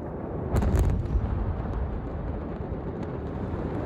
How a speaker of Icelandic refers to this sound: Um kvöldmæntaleiti þann 4. ágúst eruðu tvær sprengingar í vöru skemmu við höfnina í Beirut. Um 3000 tonn af stórhættilegu ammoniaknítræti hefðu leið árum saman í vörugjeimslinni, allt frá því að rúsneskir sjómenn skildi það þar eftir árið 2014.